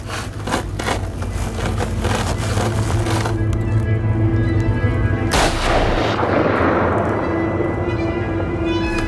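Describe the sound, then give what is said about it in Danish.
A burst of sharp cracks is followed midway by one loud rifle shot during a hunt for fallow deer, a doe and a calf about 150 metres out. The shot rings out and fades over a steady low rumble. No one speaks. “Hvis de kommer meget tættere på, så kan jeg skyde.”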